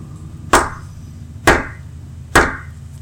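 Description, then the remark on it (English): Three sharp knocks on wood in the middle of a room in a house, evenly spaced about a second apart, each one crisp and fairly loud, ringing briefly over a low, steady background rumble. “And so, right after she does this, all of a sudden we hear just a knock in the middle of the, the, the room.”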